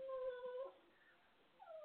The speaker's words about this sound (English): And my dog is crying. I'm sorry. I'm sorry for him crying, but he wants me to show him some attention when he knows I can't because I got to do this show.